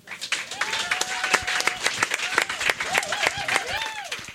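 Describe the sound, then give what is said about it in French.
An audience applauds steadily for several seconds as a volunteer comedian is welcomed at the start of an evening show, a dense crackle of many hands clapping, with cheers and whoops rising and falling above it. “vous l'accueillez en applaudissant maintenant.”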